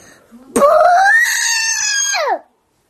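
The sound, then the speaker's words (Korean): A voice imitates one long, loud fart: a drawn-out, buzzy vocal blast lasting about two seconds that swells, holds steady, then slides down in pitch as it cuts off. “방귀 한 방에 방귀 한 방에 배 하나가 툭 방귀 두 방에 배 두 개가 툭툭 그럼 방귀 소리 어떻게 내면 좋을까?”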